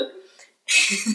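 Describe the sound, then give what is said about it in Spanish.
A single sharp sneeze bursts out, loud and hissy, after a short vocal sound and a brief moment of silence. “Salud.”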